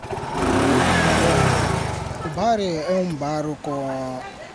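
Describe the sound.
The engine of a small covered motorcycle rickshaw (a chopella) carrying a nurse and its driver revs loudly for about two seconds, then drops back as people's voices take over, the motor still faintly rumbling underneath.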